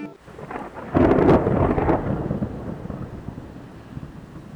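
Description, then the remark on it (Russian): A deep crack of thunder bursts in about a second in, then rumbles and rolls away gradually over several seconds, loud and broad, with a steady rain-like hiss beneath it and no voices. “Вы слышите раскаты грома, слышите удары молота, чувствуете в воздухе запах Рагнарёка.”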